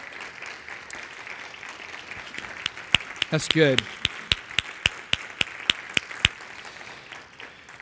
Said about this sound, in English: So let's give them a round of applause this morning. Thank you for your service in the armed forces.